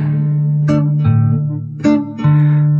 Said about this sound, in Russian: И мы вас оставляем с этой песней